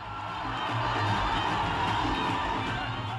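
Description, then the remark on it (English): A dense, steady roar of a cinema audience at a single-screen movie theater in India, voices blending into continuous cheering and hooting that is loud for a few seconds. “But basically, there's hooting, there's dancing, there's clapping.”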